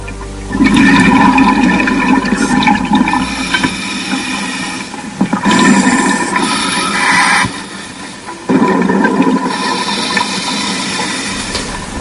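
An underwater deep-sea recording in the waters off Cabrera: a loud, continuous rushing roar of water with hissing turbulence that surges and briefly drops away a couple of times before swelling back. No voices.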